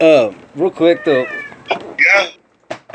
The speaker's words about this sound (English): Uh, sorry, that's my cat.